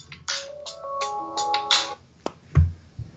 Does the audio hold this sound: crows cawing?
no